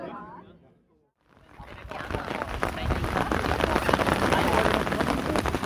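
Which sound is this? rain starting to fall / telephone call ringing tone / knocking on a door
rain starting to fall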